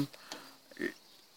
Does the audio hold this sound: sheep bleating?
yes